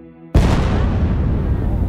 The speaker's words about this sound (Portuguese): Agora foi. Outra bomba aqui. Agora foi. É tiro, é tiro, gente. É tiro.